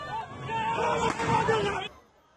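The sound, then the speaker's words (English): Security forces dispersing a protest crowd outside a university in Tehran, Iran: a dense, agitated babble of many voices with raised shouts, steady for about two seconds before cutting off to near quiet. “This video shows security forces dispersing a crowd outside a university in Tehran.”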